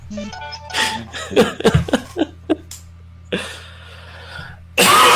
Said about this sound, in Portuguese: dá mudo quando for tossir, cara.